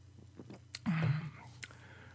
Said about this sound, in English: Jesus Christ, I need a sip of an adult beverage here. Mm.